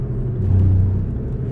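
Steady low engine and road rumble from inside a moving car, swelling briefly in the middle as another vehicle is overtaken; no voices.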